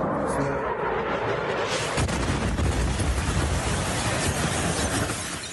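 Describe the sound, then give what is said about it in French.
A Russian missile explodes a few metres above a man on the phone in Kharkiv, Ukraine, hitting with a sudden, heavy blast after a loud, noisy stretch, followed by a dense, deep rumble and crackling roar that lasts several seconds before easing slightly. “Sur le front nord, à 500 km de là, Kharkiv cet homme est au téléphone lorsqu'un missile russe”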